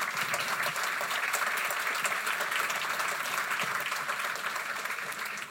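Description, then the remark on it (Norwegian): An audience applauds a panel of guests: a dense wash of many hands clapping steadily at an even, sustained level throughout, with no voices standing out. “Så jeg synes vi skal gi en god applaus til den gjengen nå.”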